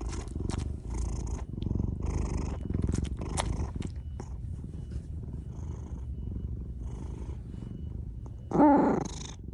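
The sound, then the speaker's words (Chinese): A cat purrs steadily, a low, rhythmic rumble pulsing in and out for the whole stretch, with a brief louder, higher chirp-like sound near the end. “听到这个声音的人，即使当下有再大的暴力之气，都会被瞬间抚平，然后就会被带去睡觉。”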